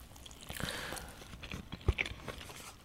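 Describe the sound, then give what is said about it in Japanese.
Soft crunching bites and moist chewing on a home-made dish cooked in a pressure cooker with soy sauce, mirin and ginger paste, a run of small irregular crackles with one sharper crunch near the end, fairly quiet and with no talking. “いただきます。”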